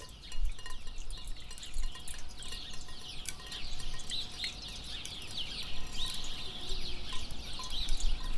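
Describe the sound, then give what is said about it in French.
Water drops patter down steadily in a dense, irregular stream of small ticks, with faint bird chirps scattered in the background and no voices. “Bruit des gouttes qui tombent.”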